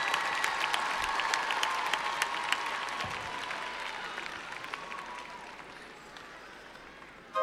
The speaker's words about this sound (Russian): Не жалейте ладошек для аплодисментов. Встречайте артистов.